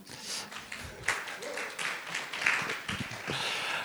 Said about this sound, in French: qui est kiné du sport au Stade de Reims et qui est là, vous avez le droit d'applaudir d'ailleurs.